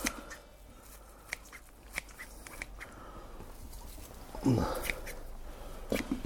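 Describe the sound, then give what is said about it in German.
Scissors snip repeatedly through fresh parsley into a salad bowl, a series of short, crisp cuts at an uneven pace, mixed with faint rustling and soft handling noise. “Frischen schnippel ich auch rein.”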